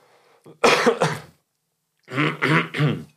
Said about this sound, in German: Ich muss einmal ganz kurz, das müssen wir jetzt mal schneiden, ich muss die ganze Zeit schon husten.